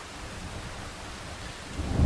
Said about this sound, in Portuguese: Bom, a chuva já está passando, eu preciso ir.